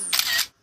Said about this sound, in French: Vous entendez ce bruit C'est le téléphone de Jérôme qui se prend en selfie